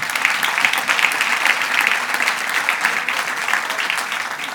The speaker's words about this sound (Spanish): Y dale un aplauso al Señor hoy.